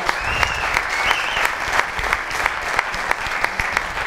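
An audience claps steadily for about four seconds, a dense, even wash of many hands with scattered sharper individual claps standing out, welcoming entrepreneur and politician Jan Emanuel as a guest.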